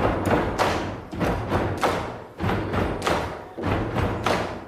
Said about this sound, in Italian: Oltre al rumore dei piedi e delle mani che battono, dovrebbe esserci un ulteriore effetto sonoro, perché le persone quando si muovono non vanno perfettamente asincrono e in più sono a una distanza variabile da noi